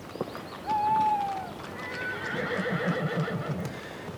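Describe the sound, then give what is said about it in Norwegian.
A horse lets out a loud, wavering neigh, followed by the steady rhythmic clip-clop of hooves pulling a cart against a rough, rumbling background; a horse and cart leaving Wittenberg on 2 April 1521 for a 600 km journey. “Den 2. april i 1521 forlater han Wittenberg med hest og vogn og legger ut på en 600 km lang reise som skal ta han 14 dager.”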